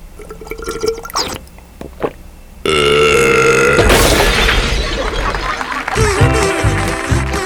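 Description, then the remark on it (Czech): Someone gulps down a sweet drink, with loud wet swallowing and liquid sounds that build into long, throaty, burp-like noises. “Prosím tě, dej mi to, já to aspoň dopiju, když to jsou takový peníze.”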